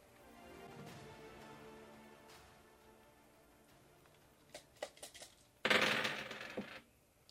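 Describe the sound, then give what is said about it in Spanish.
Dice rattle and clatter across a hard surface during a dice game: a few sharp clicks, then a dense second-long burst of tumbling, after a quiet stretch. “Ahora no frenamos, ¿eh? Porque acabo de sacar General A.”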